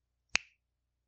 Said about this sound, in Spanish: A ver, ahora tú chasqué y te digo ya. A ver.